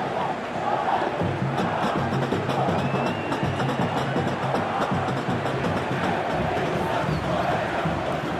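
A huge stadium crowd of some 20,000 to 30,000 people at a championship final at Morumbi in the 1980s roars continuously, thousands of voices shouting and cheering at once in a dense, sustained wall of sound with no pauses.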